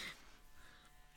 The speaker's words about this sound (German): Toll, jetzt mäht jemand Rasen. Sollen wir das Fenster schließen? Ja, das klingt, als würde sich jemand rasieren mit einem riesigen Rasierer.